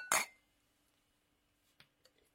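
Glasses clink together in a bright, ringing toast, one sharp chime that fades quickly, followed by a couple of softer taps and faint clatter.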